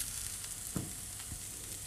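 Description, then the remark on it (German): Steady hiss and crackle of tofu, seasoned with garlic and onion powder and just turned, crisping as it fries in a pan with too little oil, a constant bright sizzle with a couple of brief louder pops, no voices. “So. Und weiter knuspern. Nach vorkommt, da ist zu wenig Öl drinnen.”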